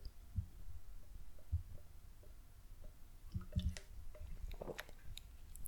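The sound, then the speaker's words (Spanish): Someone sips coffee: soft slurps, a few wet swallowing gulps and small mouth clicks, quiet and intimate, with no talking. “Eh, pausa para trago de café.”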